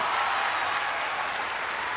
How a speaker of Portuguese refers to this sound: A plateia aplaude freneticamente.